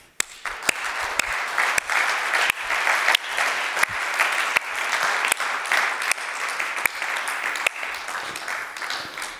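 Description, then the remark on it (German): An audience applauds God steadily for several seconds, a dense wash of many hands clapping at an even level with scattered sharper claps standing out, and no voices. “Deshalb geben wir diesem Gott Applaus.”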